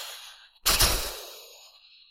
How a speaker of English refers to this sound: That's a little storm sound for us.